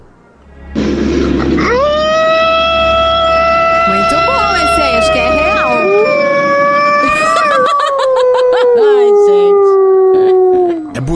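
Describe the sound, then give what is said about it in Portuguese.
A person, a listener who sent it in, imitates a wolf or dog howl: one long, loud, sustained wavering cry lasting about nine seconds, sliding downward and fading at the end, with a low rumble behind the start. “o ouvinte mandou um, um uivo. Quer, quer, quer disputar comigo aqui?”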